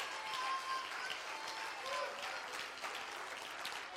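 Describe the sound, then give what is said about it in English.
A church audience clapping their hands to the Lord, a dense, steady wash of many claps sustained for about four seconds, with faint voices mixed underneath. “Oh, let's clap our hands to the Lord all over this house.”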